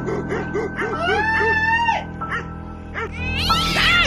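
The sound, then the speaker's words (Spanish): A cat meows twice, first a long drawn-out wavering cry, then a shorter rising yowl, over a steady low background hum. “No me asusten mi gato, ¿eh?”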